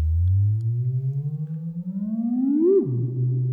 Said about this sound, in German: mach jetzt hier mal so ein, Hall, ein bisschen Hall rauf ja. ja. und dreh jetzt einfach nur an dem Knopf für die Tonhöhe und immer so ein bisschen hin und her wackel, wackel, wackel, äh, damit es wie so ein Theremin klingt, ja?